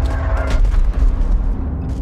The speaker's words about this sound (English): The cannons and gunfire eventually fell silent, but a new battle would begin.